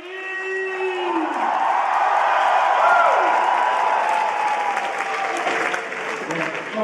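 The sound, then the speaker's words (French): A large indoor cinema audience at a 2018 screening of The Room at the Grand Rex in Paris claps and cheers loudly and continuously, with scattered whoops and shouts rising above a dense wall of applause that holds steady throughout. “Et 15 ans après sa sortie, le film attire toujours les foules, comme lors de sa projection au Grand Rex en 2018.”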